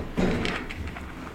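A kitchen cabinet holding cups is pulled open to get a cup for water, with a short wooden knock and scrape, followed by a faint clatter and a quieter rustling tail. No one speaks.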